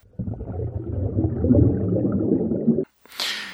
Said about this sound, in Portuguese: Peraí, tem alguém respirando no microfone. Por gentileza, afaste o microfone do nariz.